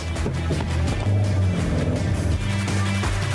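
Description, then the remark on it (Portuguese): The 1.3 Firefly four-cylinder engine of a new Strada Vulcano pickup truck hums steadily and loudly while driving on a road, its low droning tone shifting pitch slightly as it changes speed, with no voices present. “Vamos pegar a estrada junto então?”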